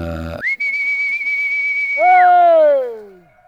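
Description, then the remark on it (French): A shepherd or farmer whistling to call his dogs: one long, steady, piercing note held for over a second, then a lower, harmonic-rich call that slides downward and fades, loud with no talking. “un, berger ou un paysan appeler ses chers ou ses chiens.”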